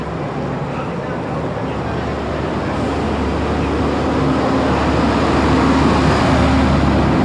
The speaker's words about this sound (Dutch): De, de hardste vrachtwagen voor Groningen komt eraan.